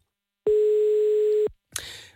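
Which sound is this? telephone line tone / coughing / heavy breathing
telephone line tone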